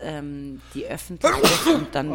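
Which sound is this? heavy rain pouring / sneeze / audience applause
sneeze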